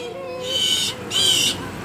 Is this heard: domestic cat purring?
no